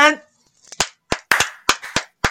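Brief applause of a few sharp, irregular hand claps, roughly eight crisp slaps in about two seconds, following a short vocal sound at the start.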